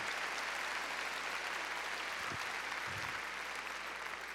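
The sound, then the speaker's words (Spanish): Steady, dense applause from an audience fills the whole stretch, a continuous loud wash of many hands clapping with no speech over it. “A ver, démosle palmas fuertes a él.”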